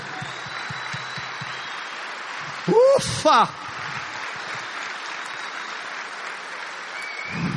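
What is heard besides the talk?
audience applause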